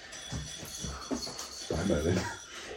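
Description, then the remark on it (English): An automatic cat feeder dispenses food: a few soft bumps, then a steady mechanical whir with kibble rattling for about a second before it stops. “If you can hear that, that's my automatic cat feeder, and that was the cat leaving.”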